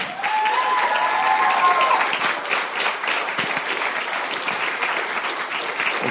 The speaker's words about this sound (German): Super, und jetzt bekommt ihr noch einen Applaus.